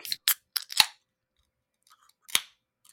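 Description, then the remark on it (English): Several sharp metallic clicks and snaps from a can of Double Lollipop Forest, a double fruited sour ale with milk sugar from Deciduous of New Market, New Hampshire, being cracked open, ending in a brighter crack with a short fizzy hiss, then a final pop after a pause. No talking. “In three, two, one, crack.”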